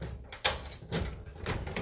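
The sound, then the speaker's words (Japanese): A door being locked with a key: one sharp clack followed by a few shorter rattling, scraping bursts of handling noise, moderately loud with no talking. “よし鍵も完了したので帰りながら”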